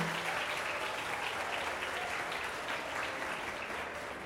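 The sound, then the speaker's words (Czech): A live festival audience claps steadily to welcome a guest, a dense, even wash of many hands at a constant moderate loudness for the whole span, with no talking over it. “potlesk živě vítáme.”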